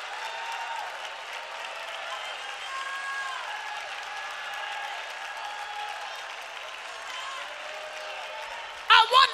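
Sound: audience clapping hands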